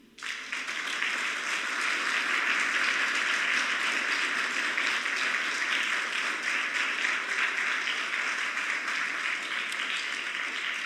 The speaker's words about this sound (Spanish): Le pido un aplauso a Jesús.